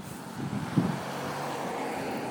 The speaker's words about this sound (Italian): ecco un'altra macchina che è passata.